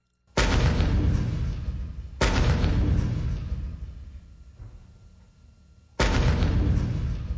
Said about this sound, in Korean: (76mm) 평사포와 (122mm) 대구경포 그리고 (130mm) 대구경포가 차례로 불을 뿜는다.